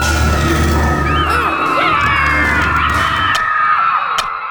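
A loud crowd of about 200 children at a camp shouts and screams all at once during a food fight in the dining hall, a continuous chaotic roar of high excited voices with scattered bangs and whoops, filling the room.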